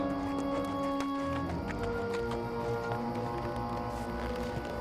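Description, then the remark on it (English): Horse hooves clip-clop at a steady, unhurried pace over a low, continuous droning hum with no voices. “I left my horse down the road and set off on foot.”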